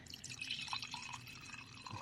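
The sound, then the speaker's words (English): Wine pours into a glass in a steady, gurgling trickle with small splashy drips, fairly quiet, with no voices over it. “That's the sound of wine being poured.”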